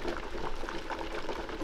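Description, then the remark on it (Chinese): Water boils in a large pot, a steady, dense bubbling with many small pops and gurgles overlapping at an even, moderate loudness throughout, with no talking. “大锅子里不断的在冒出一颗颗的水泡，”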